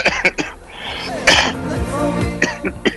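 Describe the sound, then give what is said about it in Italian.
A person coughs in several sharp bursts, a quick cluster at the start and more scattered near the end, with a drawn-out throaty vocal sound in between. “Beh, ah, vedo che migliora la tosse.”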